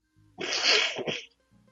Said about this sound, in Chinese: 好吧，我刚才呢是关了一个麦，然后去打了一个喷嚏，可是我在开麦的时候显然没有开成功。